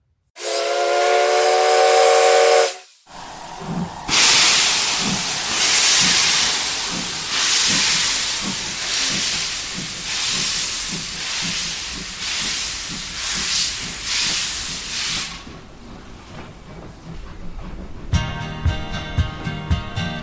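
A steam locomotive's whistle gives a loud, sustained shriek, then broad roaring steam hiss follows with steady rhythmic chuffing. The hiss eases, and another tonal, buzzing whistle-like blast comes at the end.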